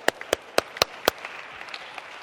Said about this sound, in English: Can we just give Jesus a hand clap of praise for that?